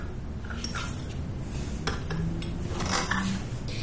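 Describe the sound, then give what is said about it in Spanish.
A cup of tea is brought and set down with a few light porcelain clinks and taps, short and sharp over a steady low background hum, with no one speaking. “Luego Lotte lleva a Hannah una taza de té.”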